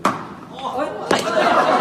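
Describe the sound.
In the hall of the Fujian Strait Graphene Industry Technology Research Institute, a staff member forcefully throws an egg onto graphene shoe-sole material; it smacks hard with a sharp thud and, unbroken, strikes again about a second later as it bounces high, while voices murmur and exclaim in the background.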